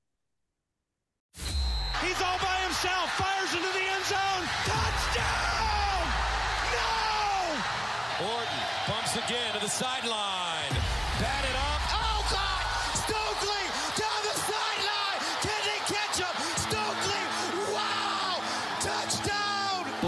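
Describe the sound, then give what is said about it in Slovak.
After a brief silence a loud jingle for the American football show Double Coverage bursts in and runs steadily for about nineteen seconds, a dense mix of shouts, whoops and crowd cheering with thumping hits layered over it. “Milí fanúškovia, vy sa nás držte tiež, pretože po džingli pokračujeme druhou štvoricou postrehov.”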